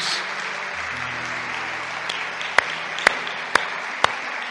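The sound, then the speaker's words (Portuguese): An audience applauds Jesus Christ in a steady, dense wash of clapping, with a few louder, sharper claps standing out near the end at an even pace. A low sustained tone hums beneath. “¿Por que não das um aplauso a Jesus Cristo tão maravilhoso que temos?”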